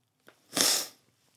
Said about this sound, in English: And pardon me for sniffing.